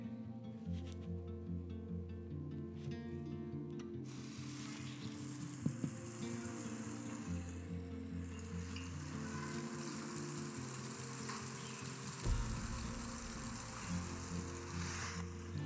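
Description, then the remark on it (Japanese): Fine hail patters steadily on dry sawtooth oak (kunugi) leaves still hanging on the tree by a playground during a winter storm, a dense, crackling sizzle of countless tiny hits that keeps up without pause, fairly loud, with no voices. “どうでしたあのパタパタパタパタパタって音聞こえましたあの枯葉に細かいあられがたくさん降って当たっている様子なんですねこれがあの今まであまり聞いたことのない音だったのであっと思って録音してみたんですけれどもね”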